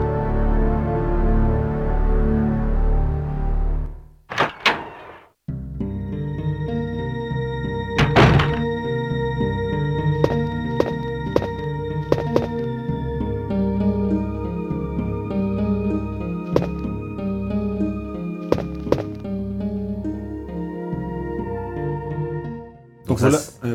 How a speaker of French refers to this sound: c'est une musique qui est beaucoup plus apaisante, qui te met direct dans l'ambiance. Ça va, t'inquiète, tout va bien, c'est reposant, il y a un lit, tu peux dormir, c'est ok,